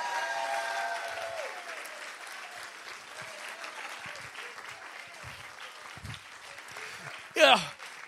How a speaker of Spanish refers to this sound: Dale un aplauso. Vamos, dale tu alabanza al Señor ahora.